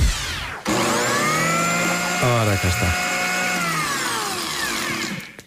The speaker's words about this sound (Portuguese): Então isto, não é, isto é, isto é um som que pode mudar o mundo. Mudar o mundo com uma máquina de fazer sumo.